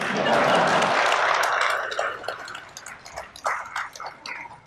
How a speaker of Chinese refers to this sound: 别光笑，该鼓掌鼓掌。